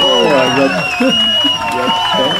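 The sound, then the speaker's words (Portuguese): A loud, steady burst of crowd cheering with raised, whooping voices and scattered clapping underneath, sustained for a couple of seconds without a break. “Aê, palmas, aí.”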